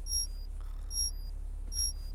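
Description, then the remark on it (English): A mandatory 9 o'clock morning alarm on a moon base goes off, sounding three short, high-pitched electronic beeps at a steady rhythm, each under a second apart, over a low, constant hum with no one talking. “This is the mandatory 9 o'clock alarm.”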